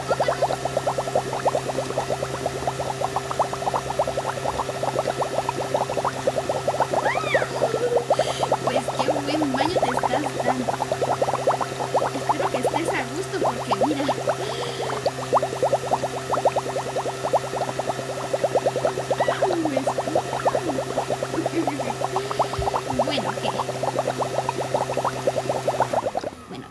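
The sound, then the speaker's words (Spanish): Steady, dense bubbling of bath water as bubbles are added to a bath, a continuous churning fizz with many small pops and gurgles, fairly loud, running unbroken with a constant low mechanical hum beneath it. “Ah, cierto, que tú querías las burbujas.”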